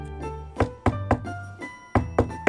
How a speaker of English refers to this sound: Knock knock knock，哦，有人敲门。She opened one eye. Knock knock knock，哦，还有敲门声。